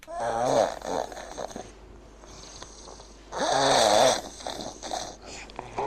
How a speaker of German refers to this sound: Na, auch schon müde? Oder können Sie bei dem Sägewerk, das die Kollegen da drüben veranstalten, gar nicht erst ans Einschlafen denken? Schnarchen kann ganz schön nerven. Also vor allem bei den anderen.